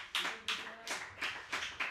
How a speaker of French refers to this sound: Merci beaucoup, merci mille fois. Ben voilà les applaudissements.